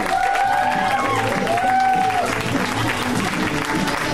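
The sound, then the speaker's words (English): A comedy show audience applauds and cheers loudly and steadily for comedian Randy Liedtke, dense clapping filling the whole stretch, with whoops and a few drawn-out shouts rising above it. “Let him hear it.”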